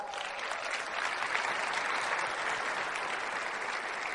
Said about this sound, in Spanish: Acuérdense, no elegimos a los más entrenamos, entrenamos a los elegidos y ustedes son los elegidos. Den su fuerte aplauso.